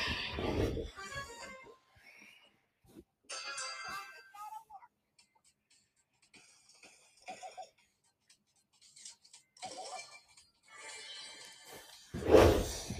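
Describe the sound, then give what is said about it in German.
A gaming chair creaks and squeaks in scattered bursts as someone settles into it, with muffled thumps and rustling at the start and a louder bump at the very end. “Ähm, falls ihr euch wundert, warum ihr Stuhlgeräusche hört, ich sitze auf meinem Stuhl, meinem Spielstuhl.”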